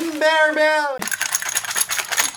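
A small bell, just given as a gift, rings out a couple of clear tones up close, then breaks into a busy metallic jangling and rattling as it is shaken and handled, fairly loud throughout.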